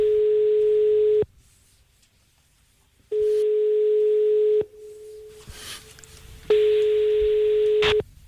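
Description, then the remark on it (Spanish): A phone line ringing on a call: three long, steady mid-pitched ringback tones, each about a second and a half, separated by quiet gaps, with no one talking. “vamos, a llamar, vamos a...”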